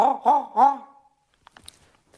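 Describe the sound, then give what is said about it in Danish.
A voice imitates a raven's call over the phone with three quick, rasping croaks in a row, fairly loud, followed by quiet and a few faint clicks. “Jeg kan sige som en ravn.”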